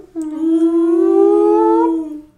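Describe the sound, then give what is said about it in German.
A single sustained wolf howl used as a spoiler warning sound effect, rising slowly in pitch and holding steady for about two seconds before fading out, loud with no talking over it. “Er ist ja von uns gegangen, Spoiler Wolf.”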